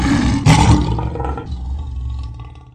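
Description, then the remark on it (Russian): A person imitates a lion's roar: one loud, gravelly growl that bursts out near the start, then rumbles on and gradually fades over a few seconds, with no speech. “Ну, ты должен был какой-то рык издать, наверное.”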